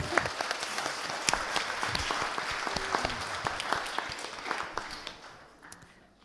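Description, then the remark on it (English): An audience applauds together, a dense rush of many hands clapping that holds steady for several seconds before thinning out and fading toward the end. “And um, I think we should give them a round of applause, actually.”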